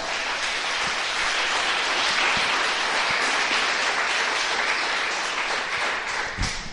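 An audience applauds the Lord loudly and steadily in the afternoon, many hands clapping together in a dense, sustained wash of sound without pause.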